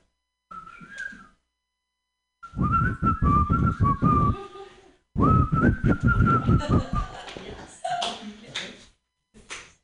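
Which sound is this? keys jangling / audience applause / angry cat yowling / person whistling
person whistling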